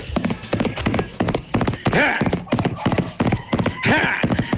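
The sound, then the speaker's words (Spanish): Donkey hooves clop in a quick, steady rhythm, loud, while it is raining, and the donkey lets out two drawn-out brays partway through and near the end. “quieta, Catalina, quieta, que está lloviendo y tú bien sabes bien que burro, chacleta y bicicleta en tiempo es seca”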